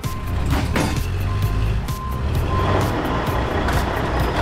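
A wheel loader at a construction site reverses with its bucket full of sand and gravel raised high, its backup alarm giving steady, evenly spaced high beeps, about one per second, over a loud, continuous diesel engine rumble and clattering machinery noise.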